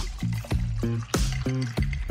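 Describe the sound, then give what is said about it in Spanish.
Liquid glugs from a bottle into a glass over ice in a quick series of about five gurgling pulses, fairly loud, as a measure of Brancamenta liqueur is poured; no talking. “Servís la medida justa del nuevo brancamenta Richette italiana.”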